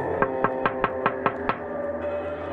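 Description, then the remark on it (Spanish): Seven quick, evenly spaced raps on a car window glass, sharp and fairly loud, over a steady low hum that carries on after the knocking stops. “Me detuve por un momento y cerré los ojos sintiéndome atrapado y vulnerable, cuando escuché cómo alguien golpeaba el cristal.”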